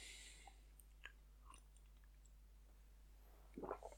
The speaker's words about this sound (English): a little sippy sip of the water.